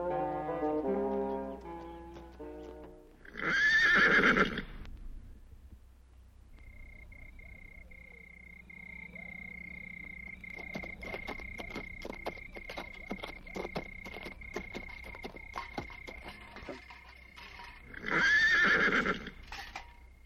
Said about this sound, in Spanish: Tengo por felicísima señal, Sancho amigo, los alegres relinchos de Rocinante y el suspirar del rucio. Buenos agüeros son en efecto, mi señor.